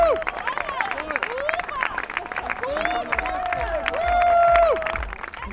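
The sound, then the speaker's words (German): A home crowd claps steadily and densely for an ice swimmer coming out of the water after a 1500-metre freestyle race, with cheers and shouting voices rising over the applause, which swells louder near the end before easing off. “Dicker Applaus für Dina Dicke.”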